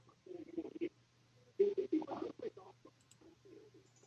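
Squelchy, wet footstep sounds, apparently made by mouth in imitation of steps approaching through a leaf-covered muddy swamp, come in two bursts of rapid squishing steps, then trail off into softer, sparser squelches over a faint steady hum.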